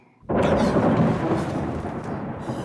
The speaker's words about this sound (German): Ein Donnern erschütterte die Mauern des Schlosses, so laut, dass Rudolf vor Schreck wieder auf den Thron zurückplumpste.